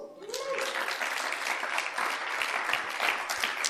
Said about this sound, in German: Liebe Jesusjünger, dafür gibt es Gott. Applaus für Gott.